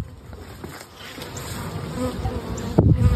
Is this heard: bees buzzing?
yes